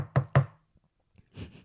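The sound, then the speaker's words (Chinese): A chat app's door-knock notification sound, heard when a contact comes online with a popup from the bottom-right corner: two quick, hollow knocks in a row with a low thud, followed by a short pause and a brief rustly burst of noise. “然后会有一个敲门的声音。”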